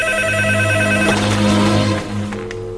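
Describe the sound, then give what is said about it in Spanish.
A telephone rings steadily, a bright electronic trill with several stacked tones that holds for about two seconds before dropping off, leaving a quieter lower hum. “Llama para ver si estoy en casa.”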